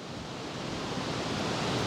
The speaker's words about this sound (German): ganz schön windig heute, oder?